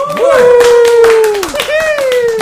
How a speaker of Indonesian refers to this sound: Anjay. Banyak suara tepuk tangan nih.